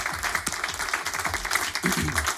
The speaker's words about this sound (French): Qu'on applaudit bien fort.